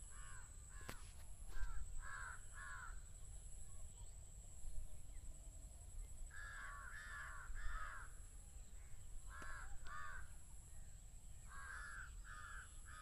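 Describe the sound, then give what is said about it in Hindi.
Two pairs of crows caw back and forth in short bursts of two or three harsh calls from two ends about a hundred metres apart, one crow about 100 m away on one side and another about 70 m away on the other; one group sounds nearer, the other fainter and more distant, over a steady outdoor hiss. “अभी जो आवाज़ आप सुनने वाले हैं उसमें दो छोर पर करीब सौ मीटर की दूरी पर दो दो कौवे हैं जो आपस में बात कर रहे हैं गौर से सुनिएगा”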